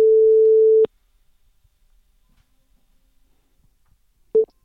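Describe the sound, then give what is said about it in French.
A phone line rings on an outgoing call: a steady mid-pitched electronic tone lasting just under a second, then silence, then the start of a second ring cut short. “Alors on l'appelle, ça va sonner bientôt.”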